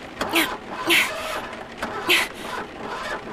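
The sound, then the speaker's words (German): A car engine cranks and struggles to start as someone tries to restart the car in the rain, with three uneven whirring bursts over a steady mechanical grind, fairly loud, never catching. “Versuche, das Auto wieder zu starten.”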